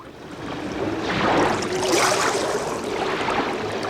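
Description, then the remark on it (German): Sea waves wash in at a lonely beach outside the town with a soft, steady roar that swells to a peak and slowly eases back, a continuous hiss of water with no voices. “fuhr mit ihm an einen einsamen Strand, der außerhalb der Stadt lag.”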